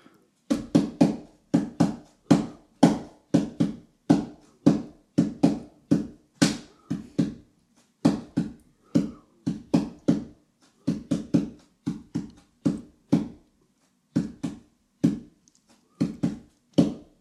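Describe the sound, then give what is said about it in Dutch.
A long run of sharp hand taps beats out a song's rhythm, grouped in uneven phrases with brief pauses between them; no one speaks. “oh, of wat ik tap wel doorkomt qua geluid.”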